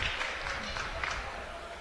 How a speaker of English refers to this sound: And Faith Anderson comes out, gets a nice hand by the Rockvale crowd.